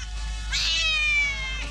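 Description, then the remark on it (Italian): A single drawn-out cat meow, high and whining with a rising then slowly falling pitch, heard over a steady low hum, with no one speaking. “Facciamo finta che questo gatto abbia il comunismo.”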